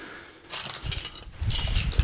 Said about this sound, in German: Schlüssel.